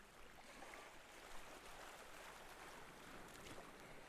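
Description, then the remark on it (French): A steady, broad wash of surf on a beach shoreline, hissing and churning without pause, with no voices and no distinct individual wave crashes standing out. “pour habiter le bruit des vagues”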